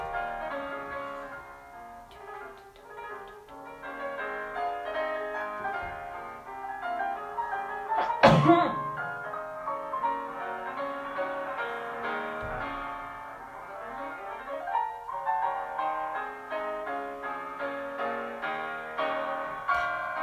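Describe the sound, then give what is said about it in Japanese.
A classical piano piece by Chopin plays steadily from YouTube at moderate volume, with rippling melodic runs and sustained chords, a sharp bright accent around the middle, and no voices over it. “これねこれそうこれもショパンです”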